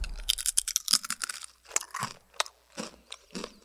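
Crisp crunching of someone chewing a crunchy chip, a rapid cluster of bites followed by several spaced, bright crunches, loud and alone with no talking.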